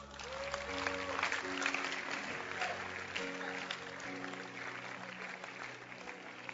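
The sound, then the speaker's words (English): An audience claps steadily for several seconds for a man who does evangelism, a dense wash of many hands at moderate volume, with sustained keyboard-like tones humming underneath. “Clap your hands for him.”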